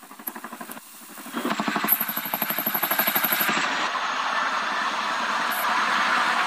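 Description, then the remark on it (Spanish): A Mexican Air Force helicopter's rotor chops loudly and rapidly, a steady thumping pulse over a broad engine roar that smooths into a continuous whooshing rumble. No one speaks. “Sin embargo, los comandantes de la milicia tenían otros planes y lo sacaron del pueblo utilizando un helicóptero de la Aérea Mexicana.”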